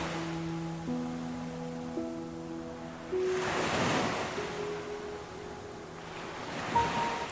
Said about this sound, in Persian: حس کنید که در مرکز دریا قرار دارید به صدای دریا گوش بدید